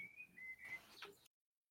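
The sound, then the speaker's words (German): A thin, steady bird whistle holds a high pitch for about a second with slight pitch shifts, faint and in the background, then cuts off into silence. “Das sind irgendwelche Vögel.”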